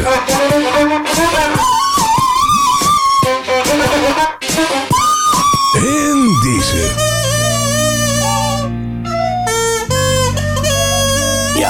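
A whistled pop melody from a CD by a whistler from Amsterdam, famous in the Netherlands in the 1990s, carries a bright, wavering lead line over full backing music, loud and continuous, with the arrangement shifting to sustained chords partway through.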